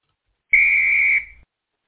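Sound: referee's whistle blown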